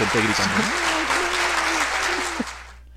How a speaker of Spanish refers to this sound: Voy a poner aplausos ahí,